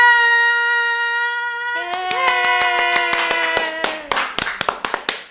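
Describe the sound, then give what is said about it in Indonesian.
A steady, bright sustained tone plays alone, then a group of hired extras on the show Grita Buka Praktek breaks into loud, irregular hand clapping over it, the claps growing sharper and more scattered toward the end. “Aku udah sewa semua ekstras di sini buat tepuk tangan.”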